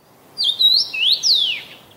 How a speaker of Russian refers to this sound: Дело в том, что есть такая птица, она называется чечевица. И когда она поет, то складывается ощущение, что она задает именно этот нехитрый вопрос.